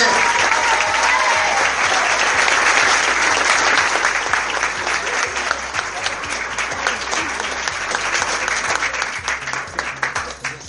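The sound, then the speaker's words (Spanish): A sustained burst of audience applause at an awards ceremony for the winner of best actor in a scene: dense rapid clapping from many hands that holds steady and loud for about ten seconds before thinning slightly at the end. “fuerte aplauso para ella nuevamente.”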